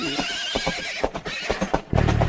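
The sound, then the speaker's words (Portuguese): A horse neighs with a shrill, quavering whinny that pulses rapidly, followed by a few breathy snorts and a sudden louder, rougher burst at the end. “Ela lança fogo pelas ventas e galopa violentamente, soltando relinchos estridentes.”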